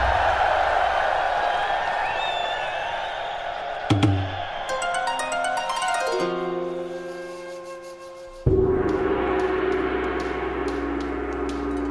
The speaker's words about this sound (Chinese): 啊，幸好没问题。三角饭团们都松了一口气，大伙儿一起发出了欢呼声。